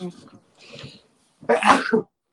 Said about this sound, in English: I sure. do apologise. I haven't got COVID. I, hope. Uh, I've been holding that sneezing for about uh, three minutes. that was too long.